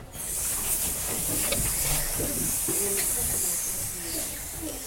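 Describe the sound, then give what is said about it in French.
Several children hiss together in a long, steady sss, imitating a snake as a vocal exercise in a singing lesson, the broad breathy noise lasting nearly five seconds with faint voices and shuffling underneath. “On va faire le serpent. Comment il fait le serpent”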